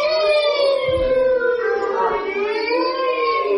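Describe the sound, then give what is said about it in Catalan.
Several children's voices together imitate the siren of the Mossos police, holding a loud, continuous high-pitched wail that gently rises and falls for a few seconds. “Què podeu fer el so de la sirena?”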